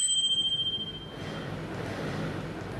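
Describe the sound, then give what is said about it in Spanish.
A small bell on a small wooden base is struck once to mark that an arrangement is finished, giving a bright, clear ding that rings on for about a second before fading into a low, steady background rumble. “Lo que hemos hecho, a mí se me ocurrió, que cada vez que un arreglo está terminado, trae hay un timbre en una basecita de madera y hacemos...”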